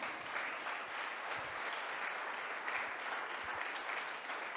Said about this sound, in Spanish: ¿Te das cuenta? Dale un fuerte aplauso al Señor, amén.